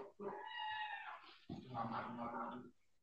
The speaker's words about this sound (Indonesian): Ya, suara anak kucing lu kedengeran aja.